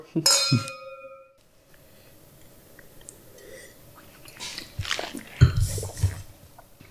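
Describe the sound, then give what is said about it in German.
Glasses of 2022 Grüner Veltliner wine touch in a toast with a bright clink that rings for a second, followed by quiet sipping and soft mouth sounds. “Sehr, sehr zum Wohl.”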